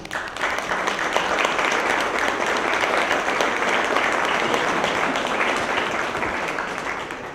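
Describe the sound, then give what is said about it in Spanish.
Sustained audience applause at an event of the Info institute, staff applauding themselves and everyone else: a dense crackle of many hands clapping steadily for about seven seconds, loud throughout and tapering slightly at the end, with no talking. “Gracias, les pido un aplauso para ustedes mismos y para todos los demás.”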